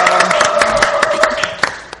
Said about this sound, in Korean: 다시 한번 우리 수고해 주시고 특별 출연해 주신 우리 삼십사의 간사님들 위해서 박수로 한번 감사의 말씀 전해드립니다. 수고하셨습니다.